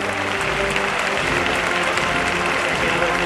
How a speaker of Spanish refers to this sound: Ahora, delantera del paso del cautivo, que es recibido con esta atoronadora ovación.